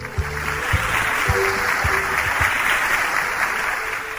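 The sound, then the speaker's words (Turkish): A group claps steadily for a few seconds after a correct quiz answer, a dense wash of hand claps at even loudness, with a few louder low thumps pulsing through at a regular beat underneath. “O zaman alkışlayalım.”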